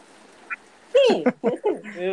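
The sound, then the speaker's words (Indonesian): A voice imitates the cackling laugh of a kuntilanak, a female ghost: a short run of high, nasal, rhythmic bursts lasting about a second, loud, after a brief faint sound. “mendengar suara dari Mbak Kunta itu tertawa ya hmm. iya, iya bisa di bisa bisa ditirukan suaranya seperti apa waduh uh, satu detik aja ya.”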